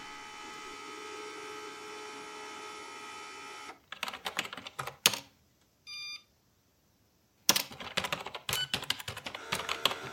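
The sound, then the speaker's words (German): Rapid, uneven clatter of computer keyboard typing in two bursts, broken by a short electronic beep and a pause, after a steady mechanical hum at the start, as someone enters personal data such as a birthplace to refine filters during a data comparison. No one speaks. “In dieser Zeit gebe ich ein paar Ihrer persönlichen Daten, Geburtsort und so weiter zur Verfeinerung der Filter ein.”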